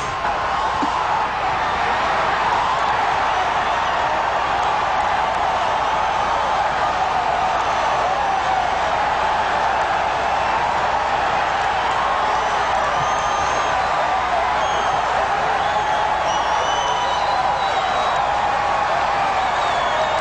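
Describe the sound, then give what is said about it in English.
A big outdoor golf gallery crowd at the 16th hole roars and cheers nonstop after a hole-in-one, a dense, loud wall of voices with scattered whoops and shouts that stays at full intensity throughout. “They're going to go nuts when he hits this thing.”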